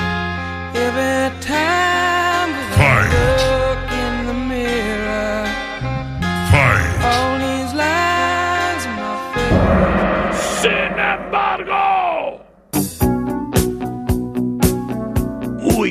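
A rock ballad plays loudly and continuously, with sustained, full-bodied instruments and a soaring voice-like melody. Near the end it shifts to a sparser, more rhythmic passage.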